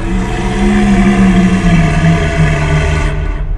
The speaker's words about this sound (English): So they all so they begin walking you over, and everyone stops as you all hear the roar of a dragon, turning.